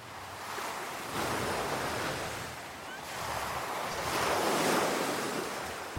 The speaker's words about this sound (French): On va faire une petite pause vague pendant ce temps-là. On vaut quelques minutes de méditation avec ah oui. la plage, les vagues.